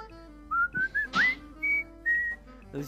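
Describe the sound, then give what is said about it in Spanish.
Someone whistles a short melody, the music from the film The Bridge on the River Kwai, a string of clear, bright sustained notes with small upward slides between them, moderately loud against a quiet background with a faint low hum. “Eh, la canción, la canción que te estaba haciendo”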